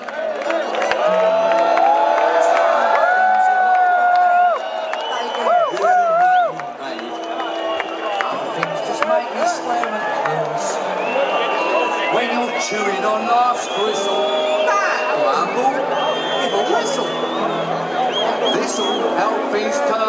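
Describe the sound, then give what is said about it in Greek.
A large concert crowd roars continuously for the whole stretch, a dense wash of cheering voices, whoops and whistles with clapping mixed in, loud throughout. “Ίσως γι' αυτό είναι το τραγούδι που ακούγεται στα ηχεία των συναυλιών των Iron Maiden εκείνη τη στιγμή που όσο και αν χειροκροτήσεις δεν θα ξαναβγούν στη σκηνή.”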